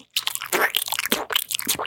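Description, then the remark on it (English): A voice imitates chewing with wet, crunchy mouth noises, a rapid run of smacking bites for about two seconds, with no words. “this is the chewing process, right?”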